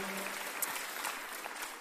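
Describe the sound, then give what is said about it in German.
An audience at a church baptism service claps steadily for the more than 14 people baptised: a dense, even wash of many hands without pause, loud and sustained across the whole moment with no voices rising above it. “Einige sind jetzt äh, nicht mehr hier natürlich, die feiern es mit ihrer Familie, aber wir geben ihnen trotzdem einen Applaus für diese Entscheidung, für diesen Schritt, den sie gemacht haben.”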